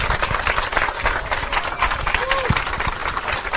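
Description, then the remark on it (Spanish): A dense, steady wash of crowd applause with many overlapping claps, sustained at an even loudness throughout, with faint voices and a brief whistle-like tone mixed in. “Un fuerte aplauso.”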